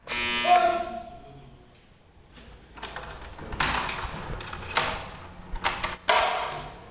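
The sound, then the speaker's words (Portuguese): A harsh metallic doorbell at an apartment door in Carapicuíba buzzes once at the start, loud for under a second, on the coldest Saturday night of the year, followed by scuffling, thumps and rustling movement. “o som metálico da campainha faz com que o jovem dê um pulo.”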